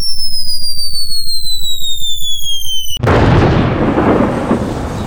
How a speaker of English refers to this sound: Yeah, that's that should be bomb dropping right now to hear.